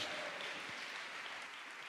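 An audience at a church service in Berlin claps steadily in a dense, sustained wash of applause, evenly loud across the whole stretch with no voices standing out.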